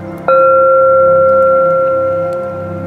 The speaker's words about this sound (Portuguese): Lembre-se, quando o sino bater,